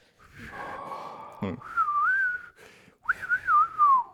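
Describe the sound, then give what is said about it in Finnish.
Someone whistles two wavering, warbling phrases, with a brief breathy puff between them, imitating the thin whistle heard when urinating with an empty bladder. No one speaks. “Kun mä käyn kusella, siitä kuuluu semmoinen vihellys.”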